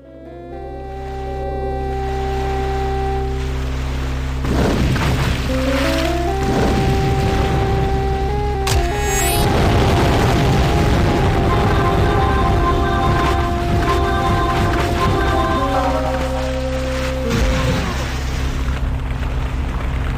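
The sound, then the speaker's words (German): Video game audio of flying around and fighting in a magical world: a loud, sustained drone with steady tonal hums, punctuated by booming blasts and crackling bursts that swell and fade over about twenty seconds. “Wir machen an der Stelle mal einen kurzen Audioabstecher ins Spiel und tauchen ein in die Spielatmosphäre, hören uns an, wie das klingt, wenn man da rumfliegt und kämpft in dieser magischen Welt.”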